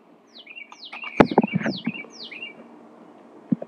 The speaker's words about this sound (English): Why, bird? Why? Why you be be quiet? I'm tr- I'm trying to record. Quiet.